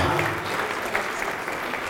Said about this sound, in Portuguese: Então vem aqui para frente e vamos aplaudir ao nome do Senhor. Vem aplaudir ao nome do Senhor conosco. Isso, vamos nos alegrar.